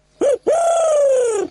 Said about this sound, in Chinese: 呵呵，那是猫头鹰。你好，聪明的猫头鹰。